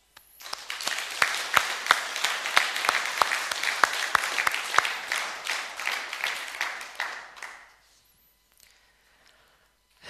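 An audience breaks into applause, a dense wash of clapping with a few sharper claps standing out, sustained for about seven seconds before tapering off into near silence.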